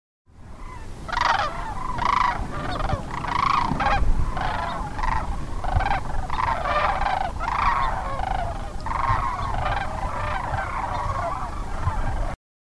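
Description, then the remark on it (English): A large flock of several thousand cranes calling together, a dense, continuous chorus of overlapping trumpeting cries that stays loud and steady throughout, with no voices. “I love the sound of cranes.”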